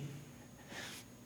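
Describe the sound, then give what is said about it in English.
A single short sneeze from a pastor, a quick breathy burst, somewhat faint against a quiet background, with no talking. “Bless you, Pastor.”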